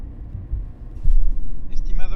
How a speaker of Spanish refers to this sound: acabamos de acceder a la estación de autobuses de Salamanca.